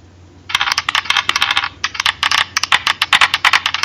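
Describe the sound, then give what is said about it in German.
Dice clatter and rattle across a hard table in a quick, continuous burst of sharp clicks and taps, fairly loud, with no talking. “Ich bin gespannt, wie lange du das durchhältst, die Würfelei.”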